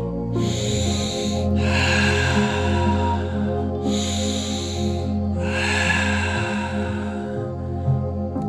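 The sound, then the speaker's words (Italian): Slow, deep breaths drawn in and pushed out, about two full cycles, airy, over a steady low droning music bed with no talking. “Fai la connessione, centrate con te stesso, senti la tua respirazione, come vai, senti, senti l'aria che entra e che esce”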